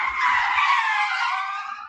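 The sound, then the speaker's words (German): A loud, sustained high-pitched screech like skidding brakes, lasting almost two seconds with a steady wavering tone before tapering off slightly at the end. “Ähm, das heißt, wenn du mir zu sehr schwadronierst, wenn du zu sehr aus dem Lehrbuch oder aus dem Katalog erzählst, dann werden wir hier sozusagen unter einem lauten Kreischen äh, die PR-Bremse ziehen.”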